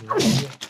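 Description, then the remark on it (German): A single loud sneeze: a voiced intake sliding downward in pitch bursts into a broad, breathy blast, followed by a brief fainter puff of air, with no talking. “Ja, Gesundheit.”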